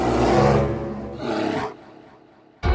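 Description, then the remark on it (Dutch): A bear's loud, deep roar-growl rumbles for over a second as it advances, fades into a lower grumbling tail, then a sharp new burst cuts in at the very end. “Zo te zien was de beer niet langer bang meer, want hij kwam luid grommend op Pluisje af.”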